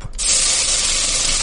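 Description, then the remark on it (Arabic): A blender whirs steadily after a brief start, a loud, continuous hiss-like motor roar that holds without pause to the end. No one speaks. “هذا انا اقول لكم ايش الصوت اسمعوا اسمعوا هذا صوت خلاط”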